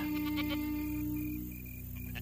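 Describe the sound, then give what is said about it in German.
Tired goats of a herd watched by a goatherd bleat in short, wavering calls, one near the start and another at the end, with a low steady hum between and no voices; long ago in Africa, where Egypt is today, after a hot day. “Ein Ziegenhirte schaut auf seine Herde. Die Ziegen sind müde und erschöpft.”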